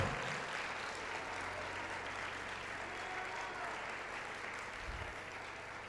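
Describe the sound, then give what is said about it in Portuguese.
An audience applauding steadily for about six seconds to glorify Jesus in worship, a dense, even wash of many hands clapping at once with no pauses, sustained at a fairly constant level throughout. “se nós pudéssemos 10 segundos adorá-lo, fazer barulho, exaltar, glorificar o nome dele, aplauda ele, diga, diga, se você é grato a ele, diga obrigado, Jesus.”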